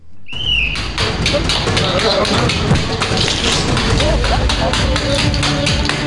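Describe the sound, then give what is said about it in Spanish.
Walnuts cracked one after another by a man smashing them with his forehead along a long table lined with walnuts in rows, breaking a previous record of 254; a rapid, uneven run of sharp taps and snaps over a steady noisy background, opening with a brief high whistle. “Y va pasando. Llena de nueces eh, en, hilera, en dos hileras, y a veces llegan a ser cuatro.”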